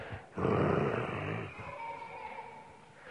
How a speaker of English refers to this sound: The lion answered this only by a look and a very la- low growl.